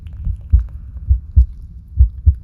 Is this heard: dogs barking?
no